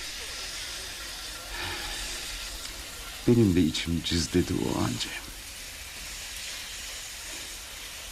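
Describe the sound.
A train's steam hisses steadily and loudly throughout, a constant airy rush as it comes to a halt, with a person speaking briefly over it midway.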